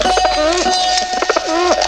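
Pigeon cooing: soft, throaty coos that rise and fall in a wavering rhythm, repeated over a couple of seconds, fairly loud and with no one speaking.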